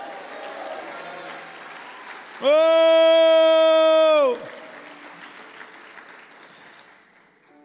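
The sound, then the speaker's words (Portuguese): An audience claps steadily for the Lord, and a loud, sustained shout to the Lord rises over the applause for about two seconds before fading back into the clapping. “Dê um brado ao Senhor e aplauda-o.”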